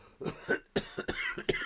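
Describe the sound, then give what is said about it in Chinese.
A man coughs right by someone's ear in a record company office late at night, about six short, harsh, rasping bursts in quick uneven succession, fairly loud, with no talking around them. “传来男性的咳嗽声音。而且是很贴近他耳朵的那种，他左看右看，哎，就没有人呐、啊！”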